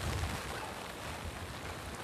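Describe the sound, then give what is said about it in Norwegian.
Rain and hail driven by a moderate gale hiss in a steady, dense wash at the Ausevik rock carving site in Flora municipality, Norway, with low buffeting gusts rumbling underneath throughout; no one speaks. “Her er altså hagl, regn liten kuling.”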